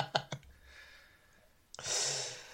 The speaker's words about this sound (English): Like I'm breathing pretty heavily. I've run up the stairs again.